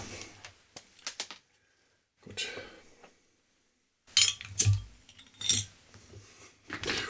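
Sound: glass clinking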